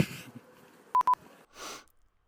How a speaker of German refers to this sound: Ich muss gerade so ein bisschen niesen.